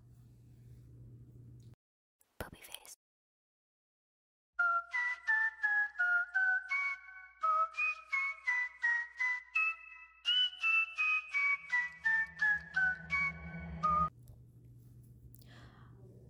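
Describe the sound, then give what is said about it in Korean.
A song plays after a click and a short silence: a bright, whistle-like melody of evenly pulsed notes stepping up and down for about ten seconds, then it cuts back to a low hum. “저희는 이제 음악을 한번 듣고 오려고 하는데요.”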